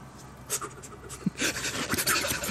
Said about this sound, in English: I begin to hyperventilate.